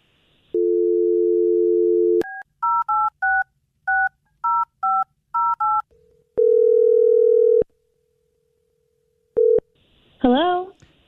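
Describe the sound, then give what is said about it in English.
A steady dial tone gives way to about a dozen quick two-tone keypad beeps as a phone number is dialed, followed by a long ringing tone, a short blip, and then a brief voice at the end. “Well, I'm gonna dial her phone over right now and see if we can figure out what happened.”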